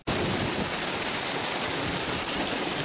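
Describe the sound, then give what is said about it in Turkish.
A steady, dense roar of heavy rain pouring down in Afyonkarahisar, where the rain turned into a flood, loud with a constant hiss that barely varies throughout and no voices. “Afyonkarahisar'da da yağmur sel oldu.”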